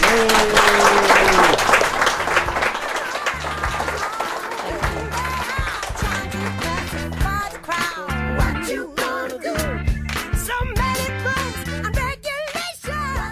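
An audience bursts into loud, dense applause for the guests that fills the first couple of seconds, then thins and fades as voices start talking over the dwindling clapping.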